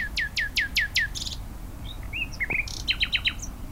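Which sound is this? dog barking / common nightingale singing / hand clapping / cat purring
common nightingale singing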